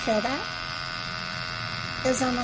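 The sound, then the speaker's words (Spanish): An electromagnetic field amplifier hums steadily throughout as it registers a surge of energy on a stair landing, with brief warbling electronic tones rising and falling at the start and again near the end. No voices. “El amplificador electromagnético indica una oleada de energía en el descansillo.”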